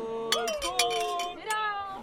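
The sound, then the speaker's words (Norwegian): Several glasses clink together in quick succession in a toast to a new bride at a wedding celebration, bright ringing chimes that linger and overlap, with a murmur of voices in the background. “Så jeg vil gjerne utbringe en skål for den nye fru Lars Andreassen. Skål!”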